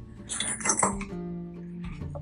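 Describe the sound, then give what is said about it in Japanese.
A beer can cracks open with a quick metallic snap and a short, bright fizzing hiss, followed by a steady low tonal hum for the rest of the moment. “一日の終わりにプシュッとリセット。”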